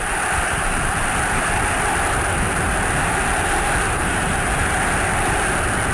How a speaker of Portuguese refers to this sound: Olha o grito de campeão da torcida do Botafogo.